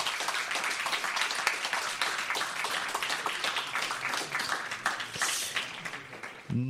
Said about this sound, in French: Je pense qu'on peut, on peut, les, on peut les remercier. On peut même les, applaudir.